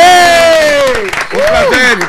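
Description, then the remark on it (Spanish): Steady applause from a crowd fills about two seconds, with a loud voice whooping and cheering in rising and falling tones over the clapping. “El aplauso para.”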